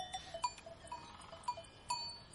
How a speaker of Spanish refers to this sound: Las vacas pastan en la llanura.